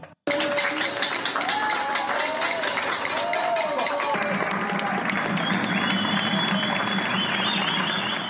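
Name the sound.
people applauding health workers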